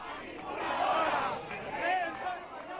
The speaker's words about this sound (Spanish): Sí, entre gritos contra el Gobierno de España y proclamas contra la prensa.